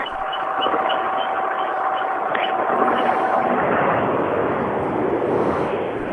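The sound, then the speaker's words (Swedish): A slanted four-cylinder rally car engine idles at a rally in Sweden, a loud, steady, lumpy rumble with a gritty, chattering edge that holds without revving for the whole stretch. “Det hörs till Tranås, fan, när man ställer vinkelfiran på tomgång här.”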